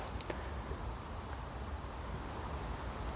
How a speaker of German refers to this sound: Hört man die Autobahn.